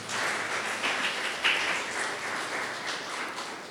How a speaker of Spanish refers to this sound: Ah, bueno, están cansados, las manos están caídas. ¿Pueden aplaudir a su Dios?